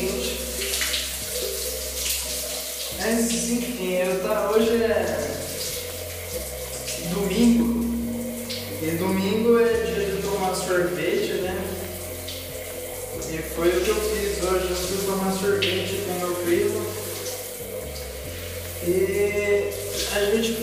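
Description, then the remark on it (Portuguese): Hot shower water sprays in a steady hiss for the whole stretch in a home shower in Jaú, with a voice and tonal, musical sounds carrying on over the running water. “O meu chuveiro está muito”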